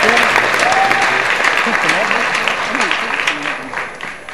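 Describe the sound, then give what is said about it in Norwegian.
Sustained audience applause in Storsalen at Det Norske Studentersamfunn, Chateau Neuf, a dense, steady wash of many hands clapping at once, loud throughout and tapering slightly toward the end, with faint voices mixed in. “Det var meg som fikk applausen i hele kveld, men eh, det blir det antagelig ikke.”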